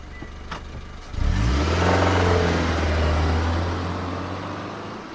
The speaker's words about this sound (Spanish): Se mete en el coche y sale volando de allí convencida de no volver nunca más.